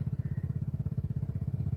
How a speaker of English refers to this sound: Oh, if you can hear in the background, our neighbors are setting off with their Vespas.